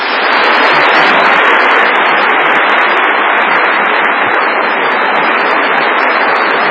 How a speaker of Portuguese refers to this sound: Os aplausos são para Castro Alves, o inesquecível poeta do estrada.